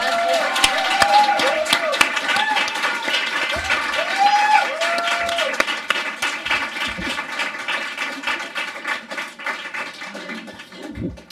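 Loud, sustained applause from an audience for a performer leaving to do Galician dance (baile galego), a dense steady patter of many hands clapping with a few cheers rising over it, gradually thinning toward the end.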